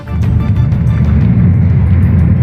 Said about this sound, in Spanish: son los bombardeos sobre Gaza. El humo llena por segundo día tras el alto el fuego el cielo de la franja. Se han visto y escuchado explosiones en la parte oriental de Canyunis. Los testigos dicen que el bombardeo ha sido más intenso.